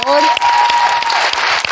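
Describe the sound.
Dense audience applause for a guitarist at a ceremony, a steady wash of many hands clapping at full volume, with a brief tonal whistle or voice trace at the very start.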